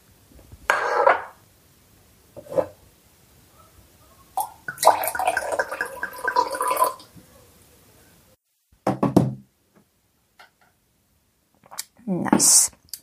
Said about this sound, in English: But before telling you a little bit of my story, let me pour some tea into your cup in this room in Amsterdam overlooking a canal.